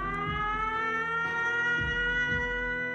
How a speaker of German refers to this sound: Judith war an einem Konzert von …, als plötzlich der Luftalarm ausgelöst wurde.